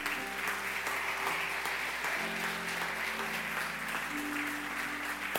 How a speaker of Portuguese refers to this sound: Eu creio nisso, se você crê, aplauda bem forte a Ele.